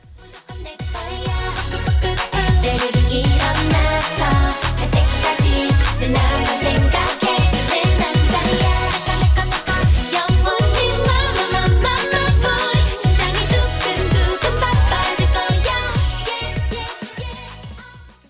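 An upbeat K-pop girl group song plays loud and full, driven by a steady, punchy beat under bright layered instrumentation, continuous for the whole stretch with no talking over it.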